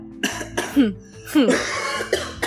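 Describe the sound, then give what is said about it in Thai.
A person lets out a series of harsh, forceful coughs, four or five rough bursts spread unevenly over a couple of seconds, with short voiced, throaty sounds between them. “ไอนะไอนะไอดังไงนะฮะ”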